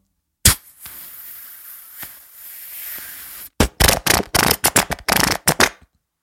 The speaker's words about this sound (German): Das war ein Knallteppich.